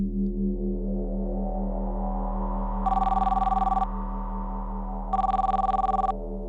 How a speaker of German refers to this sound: Als er zum zweiten Mal aus dem Schlaf gerissen wurde, lag dies an einem dringlich wiederholten Klingelton.